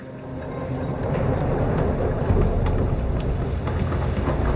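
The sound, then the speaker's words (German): A steady roar of heavy rain with a deep, rumbling low end like rolling thunder, loud and continuous throughout, with scattered crackling drops and no voices. “Mit allen Gewalten der Natur warf sie sich ihm entgegen.”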